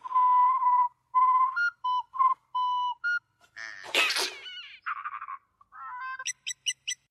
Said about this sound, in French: Vous pourriez arrêter de siffloter deux secondes et nous dire pourquoi vous n'étiez pas intéressé à notre situation depuis cinq ans